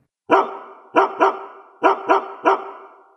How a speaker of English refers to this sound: Hey, do you hear that? What is that? It's the bark heard round the world.